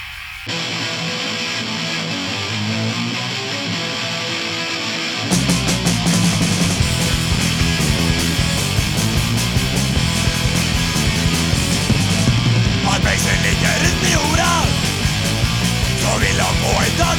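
A band plays muffled and distant, as if through a wall from the next room, then about five seconds in the music suddenly bursts in loud, full and close for the rest.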